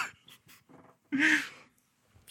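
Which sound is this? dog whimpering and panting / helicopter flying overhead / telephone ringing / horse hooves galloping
dog whimpering and panting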